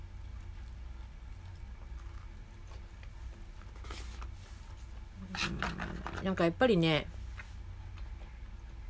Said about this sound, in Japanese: すいません、咀嚼音させてしまいました。